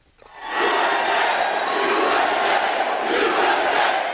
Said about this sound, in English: Donald Trump stood and savored the cheers of the crowd at another packed weekend rally, this one in Virginia.